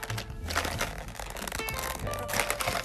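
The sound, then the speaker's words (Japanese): Steady plastic handling noise: crinkling, rustling and small knocks as a hard plastic lunchbox-like case holding testing equipment is turned and fiddled with, continuous for a few seconds with no talking. “プラスチックのお弁当箱みたいなケースに入っています。”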